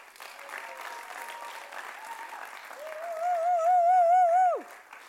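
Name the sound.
audience applause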